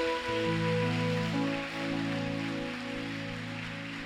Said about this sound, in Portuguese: Então, forte aplauso a Jesus.